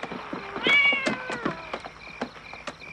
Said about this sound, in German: Und äh, dann gibt es auch eine ziemlich geile Szene, die rennen aus dem Haus und dann äh, hört der Junge noch die Katze.